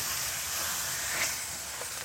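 Steady, dense sizzling of juicy, fatty pork brisket frying without oil in a hot frying pan, searing in its own rendered fat, a continuous crackling hiss with small pops, fairly loud, with no voices.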